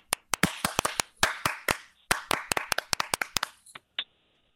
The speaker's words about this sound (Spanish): Aplaudir, aplaudir. Todo el mundo va a aplaudir.